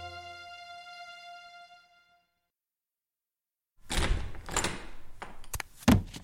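A held musical tone fades into silence, then a flurry of loud thumps and knocks follows as someone bumps into a door and a counter several times in the dark, in a kitchen.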